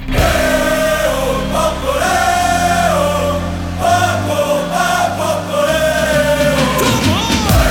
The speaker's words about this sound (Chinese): 这时候，美国也不甘示弱，全场疯狂似的唱起美国战歌。